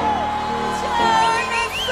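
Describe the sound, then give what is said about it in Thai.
An audience shouts and cheers together in praise of God, a steady, loud wash of many voices with rising whoops and yells sweeping over the top for the full two seconds. “ถ้าเราโห่ร้องดีไหมครับ พระเจ้ายิ่งใหญ่”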